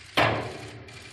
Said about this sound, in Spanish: Como marca la tradición, sonaban las 5 de la tarde en la Torre de la Berenguela cuando el arzobispo de Santiago golpeaba con el martillo ceremonial de plata y madera de encina tres veces en la Puerta Santa para abrirla.